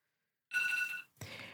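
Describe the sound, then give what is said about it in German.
An alarm clock rings with a bright, high electronic tone in two loud bursts, the first about half a second long, then a short gap and a second burst. No one speaks. “Moment, mein Wecker klingelt.”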